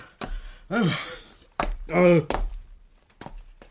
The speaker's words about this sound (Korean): 뚱뚱한 남자는 2층에서부터 헉헉거리기 시작하더니 4층에 이르렀을 때는 전기기관차처럼 숨을 내뿜었다.